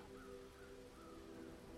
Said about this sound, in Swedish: Långt bort kan du höra kråkorna som kraxar.